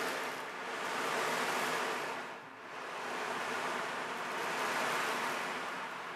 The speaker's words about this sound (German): Sie lief tief gebeugt und traurig ans Meer. Sie hörte die Wellen rauschen.